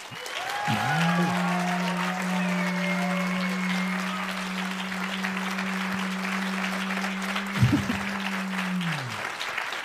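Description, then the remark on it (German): Sustained audience applause for the Danish fast food bong, a dense steady patter of many hands clapping for about ten seconds, with a low constant humming tone running underneath from just after the start until near the end. “und jetzt euer Applaus für den dänischen fastfood bong”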